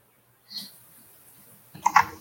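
A soft mouse click, then after a pause a quick cluster of two or three sharper clicks as someone clicks to unmute a microphone, with no talking.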